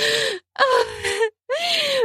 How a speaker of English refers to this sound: His fingers grip the white fake fur of my outfit, and he rips the lingerie off my breast and devours my hard nipple with his wide open mouth as I gasp.